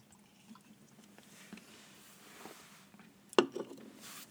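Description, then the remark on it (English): A quiet sip of liquid from a nearly empty can, soft slurping and wet squishing noises, ending with a brief sharp click or clink followed by a faint swallow. “just gonna take another sip. Honestly, we're getting low on this can.”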